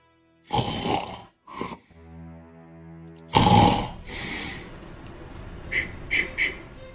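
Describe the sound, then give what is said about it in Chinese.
A voice imitates a man snoring loudly in his bedroom: rough rasping snorts, a low buzzing drone between breaths, then another heavy snore that trails off into a few faint snuffles. “来到门口的时候，他就听着聂磊在里边打呼噜了。”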